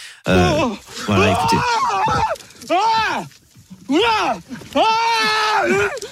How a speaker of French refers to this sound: Cet ours noir sort de, nulle part. Il lui fonce littéralement dessus et vous allez entendre les hurlements de ce japonais.